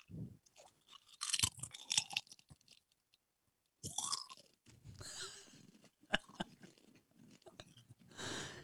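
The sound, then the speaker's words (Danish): Crisp crunching of potato chips being bitten and chewed, with bursts of sharp crackles separated by brief pauses and a louder snap partway through. “vi hører, om den også er knasende.”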